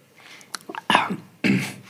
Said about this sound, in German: Erstmal räuspern. Richtig, richtig trocken.